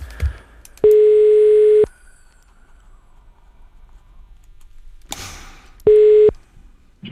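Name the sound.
telephone ringing tone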